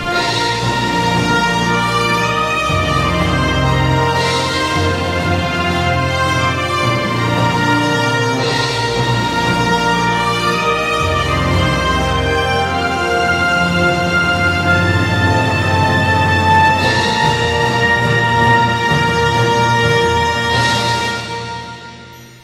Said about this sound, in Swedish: Ska vi lyssna på symfoniorkestern igen?